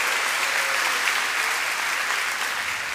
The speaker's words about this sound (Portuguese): Dá uma salva de palmas ao Senhor aí, querido.